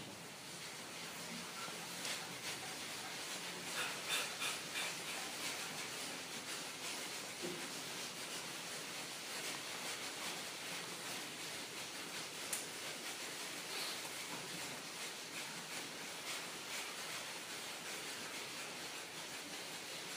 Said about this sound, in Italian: Occhi chiusi, frustando bene il diaframma, se non lo conosci senti gli altri. Respirazione purificatrice potente.